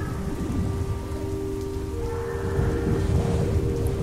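Steady rain pours down onto cobbled streets, a dense, even patter that holds at the same loudness throughout, with low rumbling underneath and a faint sustained tone.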